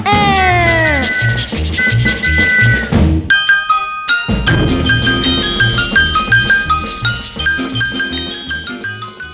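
An upbeat Italian pop song plays steadily, with a bouncy bass rhythm and bright instruments, a sweeping slide at the start and a brief break partway through before the groove resumes.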